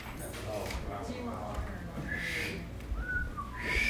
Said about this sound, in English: You have to watch John Wayne and the Cowboys. That's how you learn how to whistle.